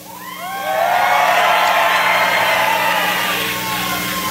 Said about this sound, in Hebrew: אתם שומעים את הצליל הזה שעלה הלילה בעצרת בניו-המפשר? זה הצליל של התמודדות בין שניים, זכתה היילי לתגובה נלהבת מהקהל.